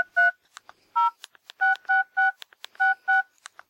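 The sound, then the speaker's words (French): A quick run of electronic phone keypad beeps, about seven or eight short dual tones pressed in an uneven rhythm, with faint clicks in between, clear with no talking, as a text message is typed and sent. “Il envoie illico un texto à son réseau.”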